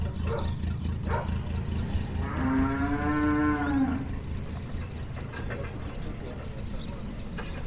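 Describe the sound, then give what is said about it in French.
A cow lets out one long, drawn-out moo, clear, over a steady low farmyard rumble with a few scattered knocks and other animal noises, on a farm at the edge of a village of 500 inhabitants, 45 minutes by car from Paris. “Le papa de Clara est agriculteur et sa ferme est en lisière d'un village de 500 habitants”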